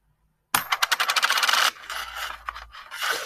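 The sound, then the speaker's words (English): A Chinese coin drops onto a hard table and rattles in quick, bright pulses that speed up as it spins and settles, followed by a softer scraping and rolling; fairly loud, no talking. “Why is this on my table? Jung Guo Renmin Yinghang one twenty ten Chinese dollar.”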